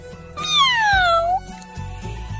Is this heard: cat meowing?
yes